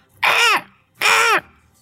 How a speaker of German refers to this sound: Möwen.